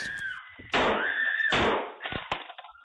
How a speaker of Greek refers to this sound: Όταν καταφέρνει να παραβιάσει την πόρτα, ο πατέρα τη συντρόφου του τον πυροβολεί τρει φορέ.